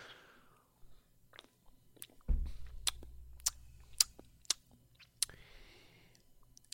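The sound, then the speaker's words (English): Drinking sounds: a soft first sip of a non-alcoholic IPA beer from a can or bottle, then a series of wet mouth clicks and swallows over a low rumble, with no talking. “Here we go for the first sip.”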